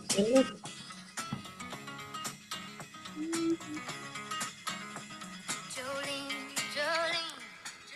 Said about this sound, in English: That little guitar lick at the start is so good. Gets me. Gets me straight away. It is yep. so good. It sounds raw as well. It sounds you can hear the mic, you can hear the little guitar plucking, the little plectrum and stuff.